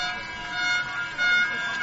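A referee's whistle gives a long, steady, high-pitched blast lasting nearly two seconds, getting slightly louder toward the end over a low background murmur, signalling the end of the first quarter of a Unicorns football game.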